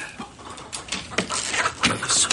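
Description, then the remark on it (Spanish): Hens cluck and squawk in a wooden cage aboard a sailing ship as a man takes an egg from it, in a quick run of short, agitated bursts, growing busier and louder toward the end, with no one speaking. “Un hombre saca un huevo de una jaula de madera.”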